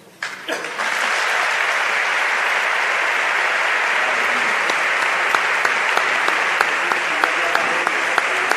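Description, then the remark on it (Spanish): A large audience bursts into sustained applause, the clapping swelling quickly after a brief start and holding steady and loud throughout, dense and continuous with a few sharper claps standing out. It is an ovation for Juan José Asenjo Pellegrina, archbishop emeritus of Seville, after the presenter's words of thanks. “Primera ovación de la mañana, en esas palabras de agradecimiento del presentador a la labor de Juan José Asenjo Pellegrina, ahora arzobispo emérito de la ciudad de Sevilla.”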